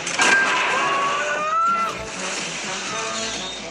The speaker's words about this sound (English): Yep, she's get the the phone booth is getting towed away.